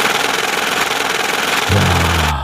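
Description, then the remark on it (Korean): A cash counting machine riffles rapidly through banknotes, producing a loud, steady mechanical whirring flutter; a deeper motor hum joins near the end before it stops abruptly. “이게 지금 대박 소리입니다. 현금 새는 소리예요.”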